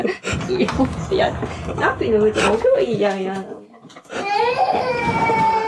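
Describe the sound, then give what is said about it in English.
A child cries, with drawn-out wailing bursts that rise and fall, loud and strained, mixed with some jumbled voices early on. “and a crying kid.”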